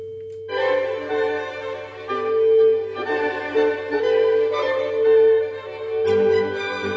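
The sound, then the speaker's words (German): A steady telephone dial tone hums on its own for a moment, then orchestral horn music from a classical piece joins, playing a melody over the unbroken tone for several seconds. No one speaks. “bei Mozart hört sich an wie ein Freizeichen”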